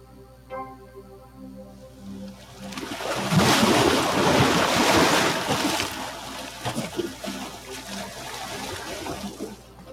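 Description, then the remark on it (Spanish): Ocean waves surge and break in a broad, rushing wash that swells loudest around the middle, then eases into a steady churning hiss, with a faint low tonal hum underneath early on. “El agua de los ríos finalmente llega al mar. Escucha las olas.”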